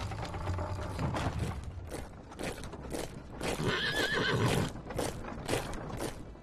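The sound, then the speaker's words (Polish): Horses whinny loudly over a steady clatter of hooves clip-clopping, with several animals and a shrill neigh rising in the middle; no one speaks. “W sumie z Krakowa wyszło 26 tysięcy żołnierzy i 29 tysięcy koni, a także 8 tysięcy wozów z zaopatrzeniem.”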